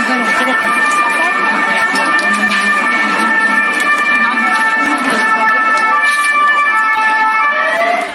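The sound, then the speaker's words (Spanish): Emergency vehicle sirens wail steadily and loudly through a busy outdoor scene as emergency services respond to a gas explosion in a four-storey building in the Salamanca district of Madrid, Spain; sustained high tones layered over crowd noise and indistinct voices for several seconds. “Así los cuerpos de emergencia atendían esta explosión que también ocurrió en España.”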